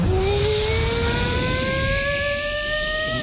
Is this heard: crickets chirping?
no